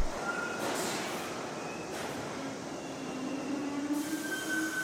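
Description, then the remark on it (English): A subway train rumbles steadily into a station at an empty platform around 3 a.m., wheels screeching with thin, high squeals over a constant low roar of rail noise, loud throughout with no voices. “And when the train finally showed up,”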